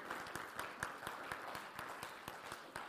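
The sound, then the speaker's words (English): The Vineyard Cleveland church audience applauds steadily, celebrating over 130 people making decisions for Jesus in 2016: a dense wash of many hands clapping, with a few sharper individual claps standing out at a brisk, irregular rhythm throughout. “And very and even more deserving of your applause is that it's not coming from the stage, it's coming from out in your workplaces, driving the bus, at Market Square Park.”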